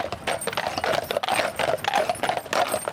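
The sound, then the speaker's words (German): Horse hooves clip-clop in a steady, brisk rhythm on a hard surface, fairly loud, as a Feldschlösschen brewery horse-drawn wagon passes with no one speaking. “Die Pferdewagen von Feldschlösschen, die haben mir schon sehr ja, gut gefallen.”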